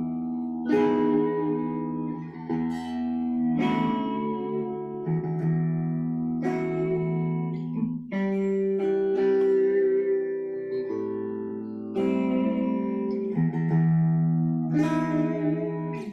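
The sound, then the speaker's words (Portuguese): An unplugged electric guitar strummed in a steady rhythm, a little way off, chords ringing thin and bright at a moderate level with a fresh strum every second or two, and no voices over it. “peguei até a guitarra aqui, me empolguei”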